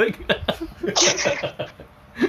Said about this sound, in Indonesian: eh batuk. Waduh. Waduh. Waduh. Wah, ini gejala ringan eh, pasti. Siapa yang batuk?